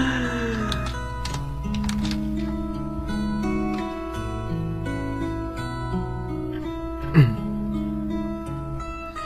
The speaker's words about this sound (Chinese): 嗯原谅一下，就是我打字的声音啊，就是我在和 O W 做红线给你拉走呢。